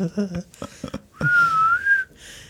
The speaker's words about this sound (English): A little whistle in that.